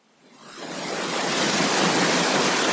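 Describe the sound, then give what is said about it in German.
A steady wash of static hiss swells up within the first second, then holds at a constant, fairly loud level like an untuned signal, with no voices or other sounds. “Um das Rauschen weg? Wir bemühen uns.”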